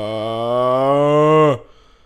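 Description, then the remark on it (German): A single drawn-out, sheep-like bleat made by a human voice, loud, holding a steady buzzy pitch for about a second and a half before dropping off abruptly into quiet. “Das aber haben sie na, ein bisschen angehört wie ein Schaf vielleicht.”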